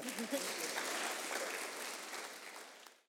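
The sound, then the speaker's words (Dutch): An audience claps steadily for about three seconds, a dense patter of many hands that holds even and fairly loud before fading out at the end. “Applaus.”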